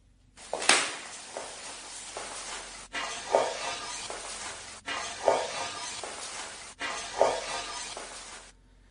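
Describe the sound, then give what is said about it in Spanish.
A purported psychophony recording made with a camera in the hallway of a house while the family sat inside: steady hiss and crackle with recurring swelling, rustling bursts, broken into four segments by abrupt cuts, and no clear words audible. “Esta psicofonía, para que los oyentes se pongan un poco en situación, estaba toda la familia sentada en la famosa vivienda.”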